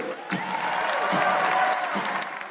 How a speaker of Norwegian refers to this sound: De klappet begeistret over at landsmøtet til det republikanske partiet var i gang.